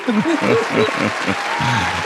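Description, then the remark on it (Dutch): Steady applause from a crowd fills the whole moment, dense and continuous, while a man's voice talks over it. “Het is wel de applauskop vandaag.”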